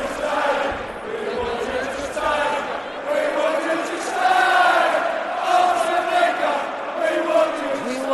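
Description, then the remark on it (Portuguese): A large stadium crowd of opposing football fans chants "we want you to stay" at Arsene Wenger in unison during the Premier League, a loud, steady sung refrain with rising and falling melody that carries on without pause over a dense roar of voices. “Torcida adversária cantando Queremos que você fique, Arsene Wenger.”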